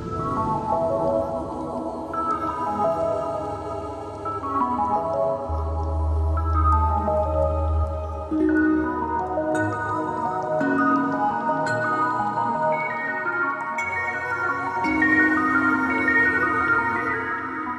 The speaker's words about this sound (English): and that's really what you kind of hear with that little that light singing that's going on